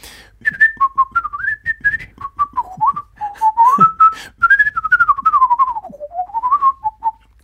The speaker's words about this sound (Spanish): llegué a desarrollar como una habilidad de silbar muy rápido